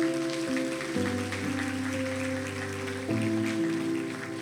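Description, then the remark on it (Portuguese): A crowd claps steadily and densely for several seconds, applauding the Lord for the lives of a couple, over sustained keyboard chords that shift pitch partway through, with no one speaking. “Vamos aplaudir o Senhor pela vida deles.”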